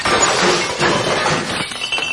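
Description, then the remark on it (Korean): A loud crash as an electric fan is hurled by the woman in the second-floor home and smashes, with harsh shattering and clattering debris sustained for about two seconds, no voices. “2층 집 아줌마가 선풍기를 집어 던진 듯 했다.”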